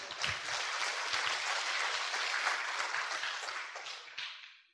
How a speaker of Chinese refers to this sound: 这黑板上有您的尊姓的，请举手。哦，好，欢迎大顺的后代啊！掌声鼓励一下。